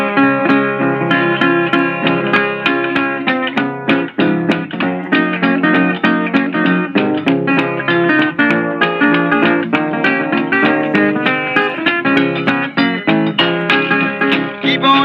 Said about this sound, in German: Lass uns mal ein bisschen Musik hören zur Auflockerung.